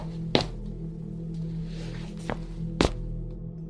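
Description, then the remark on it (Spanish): Three dull, thudding footsteps on a roof, spaced irregularly with a long pause before the last two, over a steady low hum and no talking. “Pasó un minuto, y fue entonces que escuchamos el ruido de pasos en el techo.”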